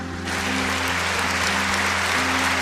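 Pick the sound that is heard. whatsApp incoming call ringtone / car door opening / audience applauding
audience applauding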